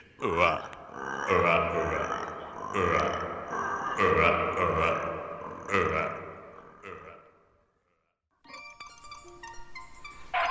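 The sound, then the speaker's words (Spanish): A person imitates a toad croaking with a string of deep, gurgling, burp-like croaks in an uneven rhythm, fairly loud, followed by a brief silence and then a music-backed radio segment. “Soy un sapo. ¿Un sapo? Claro, de los que saltan muy alto y a veces dicen...”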